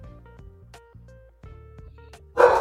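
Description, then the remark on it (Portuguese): A small Pomeranian dog barks repeatedly in quick, high-pitched yaps, a series of sharp bursts ending in a louder, harsher bark near the end; no one speaks. “Ai, um Lulu da Pomerânia aqui pra trás, velho.”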